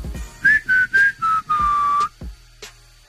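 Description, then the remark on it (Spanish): A person whistles a short tune with their mouth: five clear, bright notes, the last one held longer, fairly loud, with no talking. “Eso es silbar, pitar.”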